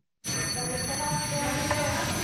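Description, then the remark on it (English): A hand bell rings steadily and continuously at a handover ceremony marking Giorgia Meloni's first day as Italy's new prime minister, its bright metallic tones sustained over a low murmur and faint background voices. “With the ringing of the bell, Giorgia Meloni begins her first day at work as Italy's new prime minister with a handover ceremony.”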